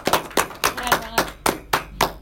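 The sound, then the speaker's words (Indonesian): Steady, rhythmic clapping: a string of sharp, bright claps in an even beat, a small group at a student association event applauding the guest speaker, with a faint murmur of voices underneath. “Boleh dong kita tepuk tangan dulu nih untuk narasumber kita nih acara yang kan, luar biasa ini.”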